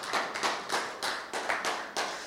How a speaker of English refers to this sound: So, uh, do you know what? Let's, let's, us leaders actually, it might be a little bit quiet, but just our leaders, let's give everybody a clap.